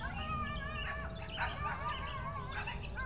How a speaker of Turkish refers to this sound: yine bir kavga gürültü var. Sanıyorum kedi bahçeye tekrar girmiş olabilir.